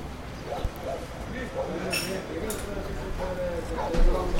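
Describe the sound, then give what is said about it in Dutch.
Four dogs walking past bark and yip intermittently on a busy street in front of a conservatory, mixed with chatter, clinking dishes and general outdoor bustle. “Elke straat wel drie, vier honden. Nu komen er net weer vier honden langs gelopen.”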